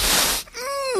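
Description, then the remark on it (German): A chair gives a rough scraping rustle, then a drawn-out squeaky creak that rises in pitch at the end, fairly loud, with no talking. “Ja, das ist ein ja, anderer Stuhl. Ist der Stuhl.”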